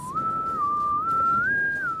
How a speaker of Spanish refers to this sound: una persona que sabe silbar. estamos acompañados. ¡Y lo logra!